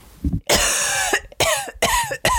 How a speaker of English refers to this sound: And the symptoms include fever, dry cough,